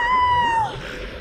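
A single loud goat bleat, a sustained high, reedy cry held steady for over half a second before it drops sharply and cuts off. Low background rumble continues afterward.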